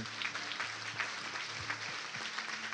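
A crowd applauds a guest speaker after his exhortation on sharing the gospel, steadily, a dense wash of many hands clapping at once, sustained at an even loudness for a few seconds with no voices standing out.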